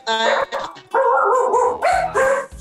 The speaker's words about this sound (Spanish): Hay un perro. Nos vino a saludar.